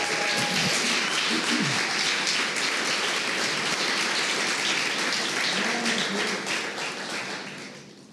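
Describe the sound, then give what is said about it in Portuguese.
A large church audience applauds Jesus during a sermon, with dense, sustained clapping and a few voices calling out underneath, before the applause fades toward the end. “Se fosse você, dava um aplauso a Jesus.”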